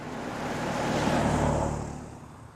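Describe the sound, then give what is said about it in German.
A car passes by on a wet, dark street with no snow on it, its broad engine and tire rumble swelling to a peak midway and then fading as it moves off, with no voices present. “Fahrende Autos machten ihn immer nervös.”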